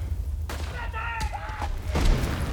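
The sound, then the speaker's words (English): Several sharp rifle cracks and heavy artillery booms burst out over a constant low rumble, with a faint whistling tone between blasts, like a loud, continuous battlefield: a British soldier fires his rifle over a six-foot pile of sandbags amid relentless shelling and explosions on a cold morning. “The deafening roar of shelling and explosions has been relentless all afternoon, and the stench of death hangs in the cold morning air.”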